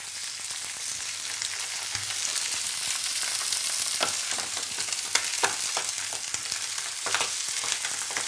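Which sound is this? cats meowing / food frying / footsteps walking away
food frying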